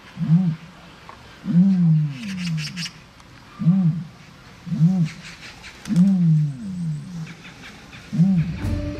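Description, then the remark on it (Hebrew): Deep, resonant booming calls, like the ostrich-like sounds dinosaurs are thought to have made instead of roaring, repeat about six times in a steady rhythm. Each is a short, swelling, loud low grunt over faint rustling in the background, with no speech. “לדינוזאורים, כפי הנראה, לא היו מיתרי קול כמו לנו או ליונקים אחרים, ולכן הם לא שאגו כמו אריה, אלא השמיעו קולות הדומים לקולות שמשמיע יען.”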